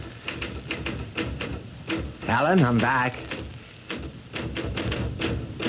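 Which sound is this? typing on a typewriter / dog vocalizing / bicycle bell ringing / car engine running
typing on a typewriter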